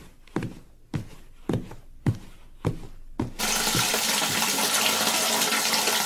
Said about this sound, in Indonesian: Pertama-tama, potong basahi dulu tangan seluruhnya dengan air mengalir.